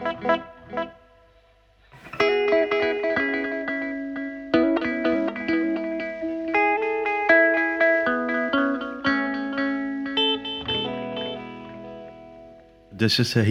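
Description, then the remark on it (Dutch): Electric guitar notes played through a delay, each plucked note followed by a single echo, in a steady run of bright, sustained tones with a brief sound before the playing starts. “Dus als ik de repeats even op enkel zet.”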